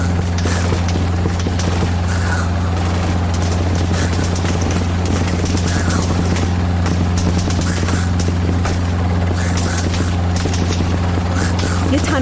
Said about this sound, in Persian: صدای یه توفنگ جدید اومد چشامو باز کردم دیدم یه هلیکوپتر رسیده بالای سرمون از بالا دارن زامبیا رو میکشن